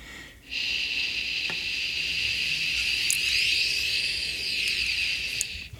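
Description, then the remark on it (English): A steady, breathy shh hiss from a human voice, made by a person walking toward a wall, starting abruptly and holding level for about five seconds with subtle shifts in tone as they approach. “I'm going to make a shh sound”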